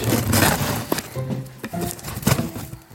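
Rustling and crinkling of packaging material with scattered sharp clinks and taps, as a delivered order parcel is handled and opened with a sharp knife, with faint murmured tones in the background.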